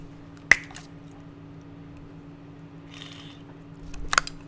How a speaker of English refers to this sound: Excuse me, just drinking some water.